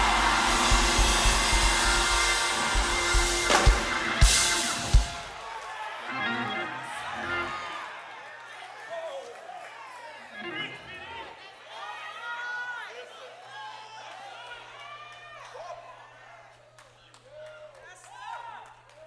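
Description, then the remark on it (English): A large crowd lets out a loud, sustained roar, imitating lions, for several seconds, then it breaks into scattered overlapping shouts and whoops that gradually fade. “Let me hear some lions roar tonight.”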